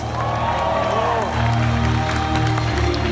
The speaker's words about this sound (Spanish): Entonces el que aplaudió tiene que ser ese líder. Muy bien. Ahora sí, un aplauso fuerte para ustedes.